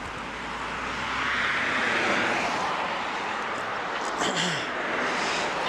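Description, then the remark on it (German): A steady, loud roar of traffic on a busy main road, with engine noise swelling and a vehicle passing by near the end, and no voices. “Wir sind jetzt an der richtigen Hauptstraße hier.”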